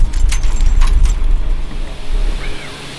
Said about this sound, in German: Und wenn ihr jetzt dachtet, von außen betrachtet sind Windräder laut, dann nehme ich euch jetzt mal mit rein ins Windrad.